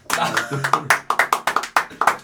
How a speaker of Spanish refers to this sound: Ah, porque para esto hoy es un día importante. Ah, ah hoy cumple un mes. Hoy que se graba el podcast cumple un mes con su novia. un aplauso.